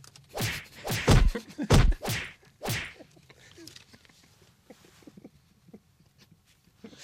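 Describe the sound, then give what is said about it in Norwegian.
Five or six sharp, loud whacks and thuds of karate strikes land in quick succession, followed by a quieter stretch of faint scattered knocks and rustles. “Det var bra slaging.”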